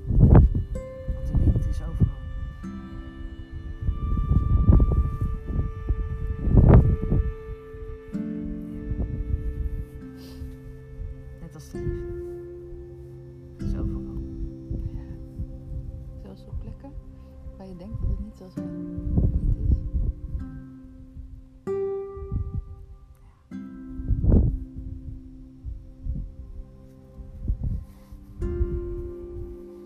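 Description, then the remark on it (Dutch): Wind buffets the microphone in loud, uneven gusts, producing a deep, muffled rumble that surges and fades throughout, with faint tonal sounds drifting underneath. “Zocht naar een plek om uit de wind te kunnen zitten. Het is niet gelukt.”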